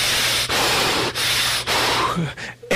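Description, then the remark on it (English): Someone imitates the heavy breathing of a muscular man in a security uniform, a run of loud, raspy breaths in a steady rhythm, each one rushing into the next with only brief catches between them. “And I could hear him breathing.”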